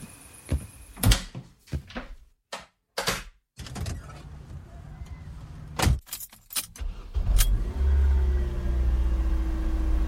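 A door is shut against the cold with a few sharp thuds amid jangling keys, and then a low engine rumble starts up and continues steadily to the end.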